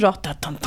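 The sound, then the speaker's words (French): A voice quickly imitates a steady, metronome-like bass line with a few evenly spaced, clipped syllables, fairly loud, after a brief spoken word. “Euh, alors, c'est la basse comme ça qui tourne un peu avec ce côté métronome”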